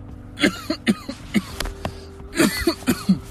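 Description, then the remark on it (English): A rapid series of harsh coughs from a person who has been smoking, in two bursts, about eight hacks in all, with a brief pause between fits and no talking. “Excuse my coughing.”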